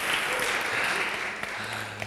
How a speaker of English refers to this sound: It's okay, you can clap.